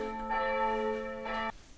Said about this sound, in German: So, die Kirchenglocken haben uns jetzt verlassen